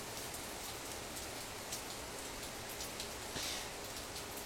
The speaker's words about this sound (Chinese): 哦，这雨声好大，不过没差，因为我快没电了，我快没电了。对，下雨声有点大